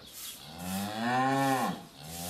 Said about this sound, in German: ob es seinen Kühen gut geht. Gerade kommen sie vom Melken in den Laufhof zurück.